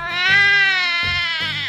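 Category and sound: human body sound, baby crying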